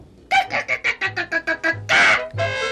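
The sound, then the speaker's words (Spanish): A hen clucks in a quick, steady run of about nine short clucks, then lets out two longer, drawn-out squawking calls. No one speaks. “Y para la gallina.”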